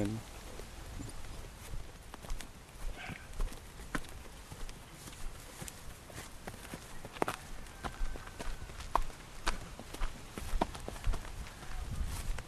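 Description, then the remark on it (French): The hooves of a once-wild mare, ridden for four months, clip-clop in a steady, uneven rhythm as she is ridden, the thuds continuing throughout over a constant hiss of outdoor background noise. “Euh, ben, là ça fait 4 mois qu'on monte la jument.”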